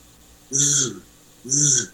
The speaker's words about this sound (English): You can either get it by vibrating your lips as you're blowing through the call, like this. This is kind of how I used to do it